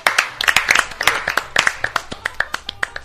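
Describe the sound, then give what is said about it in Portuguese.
A brief round of applause from a small group, with quick overlapping hand claps that start dense and lively, then thin out to a few slower, scattered claps. “Uma, uma, vamos bater uma salva de palmas para a dona vamos.”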